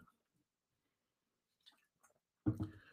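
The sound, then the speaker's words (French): Near-silence, then a couple of soft mouth clicks and a brief sip or gulp of a drink near the end, with no talking. “Prends une gorgée.”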